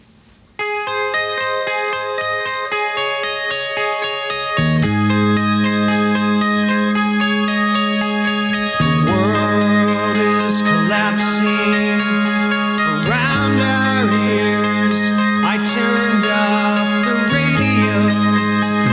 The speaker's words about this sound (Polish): Zaczęliśmy dzisiaj od takiego muzycznego wstępu z płyty, które będzie nam dziś towarzyszyć w rock'n'rollowej historii świata. To jest oczywiście e, fragment e, z płyty …